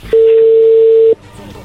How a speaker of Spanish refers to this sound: ahí entró la llamada.